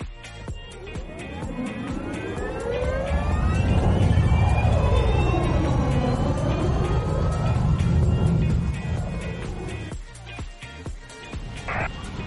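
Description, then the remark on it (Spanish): An electric car drives along the road on a 200-kilometre route toward Durazno, with a high motor whine that glides up and down in pitch over steady tire rumble, with rain pattering and ticking throughout. “como era de esperarse, el clima no mejoró, acá vamos haciendo ruta y no para la lluvia.”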